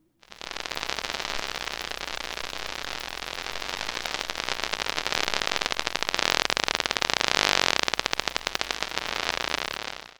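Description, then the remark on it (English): A dense, continuous crackling buzz of rapid electrical clicks from several electric fish discharging their electric organs near an electrode dropped in water and played through an audio amplifier, steady and loud throughout, swelling slightly in intensity toward the middle, with no voices. “what you're hearing there is multiple fish in the vicinity of the electrode that are all discharging their electric organ.”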